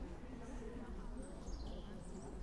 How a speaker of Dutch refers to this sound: En boven onze hoofden het geluid van de vogels, de vogelzang.